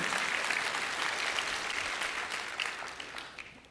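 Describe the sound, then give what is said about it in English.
An audience claps for an Olympic medal winner seated among them, a dense wash of many hands at steady volume that gradually thins and fades toward the end, with no voices standing out. “So, he, yeah, you can clap for him.”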